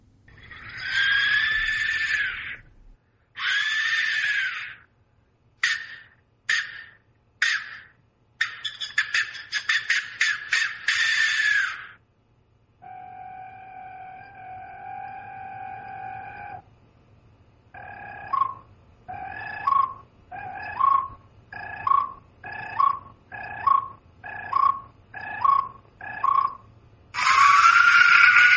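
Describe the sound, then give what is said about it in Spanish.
Archaeological Mexican skull whistles: loud, harsh, breathy shrieks in bursts, then a steady hollow wailing tone, a run of about a dozen short rhythmic hoots, and a final piercing scream, with no talking. “Pero lo que no sabíamos es que el sonido y mensaje de esas calaveras se perpetuó bajo tierra y que podía ser resucitado.”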